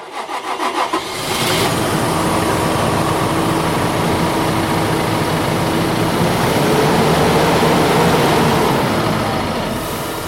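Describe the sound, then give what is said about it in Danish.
A heavy diesel tractor engine in a farm machine shed at Vejgården cranks over and catches within the first second or two, then settles into a loud, steady idle that rumbles on until the end. “vi er gået ned i maskinhuset og skal kigge på nogle af vores traktorer.”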